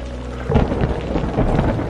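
Thunder rumbles through an evening storm with lightning and wind: after a steady low hum, a heavy deep roll breaks in and keeps churning, with swelling and fading waves of low rumble and a hiss of rain beneath.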